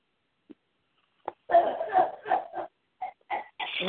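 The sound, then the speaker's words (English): A mother with a cold coughs at home in a short run of harsh, throaty bursts, starting with a faint catch, then a louder cluster of coughs and a few trailing ones, fairly quiet. “I don't know where this cough came from.”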